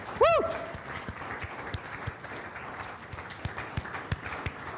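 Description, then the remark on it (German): Loud, dense applause from a large standing worship audience applauding God, a steady wash of many hands clapping, opened by a short rising-and-falling whistle or whoop near the start. “Steht auf, denn der Herr ist hier, er ist mitten unter uns, er ist hier, steht auf und lasst uns diesem Herrn jetzt gemeinsam einfach mal einen tosenden Applaus geben.”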